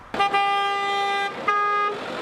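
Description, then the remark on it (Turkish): A car horn honks loudly in congested road traffic during nine-day Kurban Bayramı holiday travel, first a long sustained blast, then a shorter second toot, with a faint traffic murmur underneath and no voices. “Yollarda araç yoğunluğu trafiği durma noktasına getirdi.”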